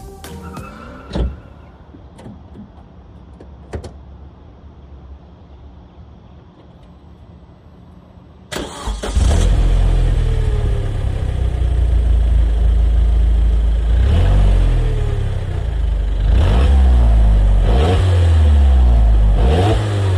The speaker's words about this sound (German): Ja, das klingt erstmal wie so ein normaler Motor, Verbrenner, Benziner. Verbrenner, Benziner, das ist logisch, ja. Keine es besondere Note jetzt klingt im Klang. nicht ne? so richtig sportlich, es klingt nicht besonders.